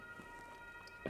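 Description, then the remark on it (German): A faint siren drones in the background, its steady tones barely rising above a quiet hiss of ambient noise, with no one speaking. “Ähm, ja, ihr werdet vielleicht im Hintergrund eine ganz seichte Sirene hören.”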